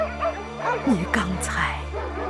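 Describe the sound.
Dogs bark and yip all around a village in a few short, high, whining bursts over a steady low hum, while a person speaks briefly over them.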